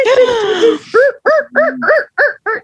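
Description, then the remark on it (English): A person vocally imitates seals: a drawn-out wavering moan, then six short, honking barks in a quick steady rhythm, loud with no other voices. “just making little seal noises.”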